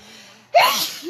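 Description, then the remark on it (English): A single sharp sneeze bursts out after a quiet lead-in, loud, with a bright airy blast that trails off quickly. No talking accompanies it. “Bless you.”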